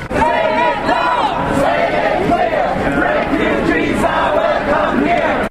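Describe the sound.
A crowd of over 1,000 people chants and shouts together at a demonstration against the far right in the rain in Freiburg, Germany, many voices blending into a loud, continuous roar with rising and falling rhythmic calls.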